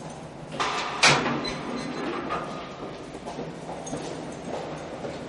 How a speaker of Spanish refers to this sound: Un soldado abre la puerta de barrotes de la cárcel para alemanes